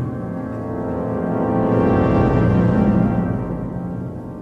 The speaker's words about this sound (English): By the way, this opera we're listening to was written between 1975 and 1978 by a Polish composer called Krzysztof Penderecki.